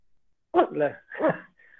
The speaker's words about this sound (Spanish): Estaba mi perrita aquí ladrando como loca.